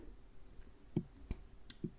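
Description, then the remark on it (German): A few quiet, irregular clicks, like a computer mouse being pressed, about four short taps in under a second against a soft background hiss, with no voices. “Ähm, löschst du weiter Dateien? Nein, mache ich nicht. Hm. Ich höre es klicken.”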